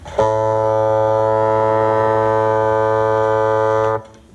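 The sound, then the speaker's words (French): A double-reed bassoon holds a single low, steady note for nearly four seconds, full and buzzy like a horn, played alone before stopping cleanly. “C'est un peu plus gros qu'un hautbois. C'est un... composé en quatre parties. Ça, c'est le bocal.”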